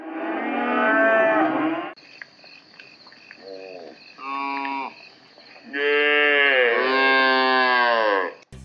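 A cow moos several times: a long loud bellow, two shorter quieter lows, then another drawn-out moo, with a steady chirring of insects in the background.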